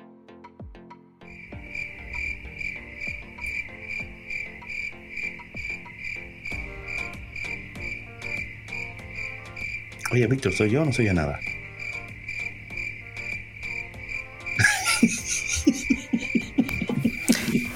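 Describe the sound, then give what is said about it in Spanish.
Crickets chirp in a steady, rapid pulsing drone that runs nearly unbroken through the whole stretch, fairly prominent, while people talk briefly over it and a few louder bursts of noise intrude. “Unos grillitos ahí.”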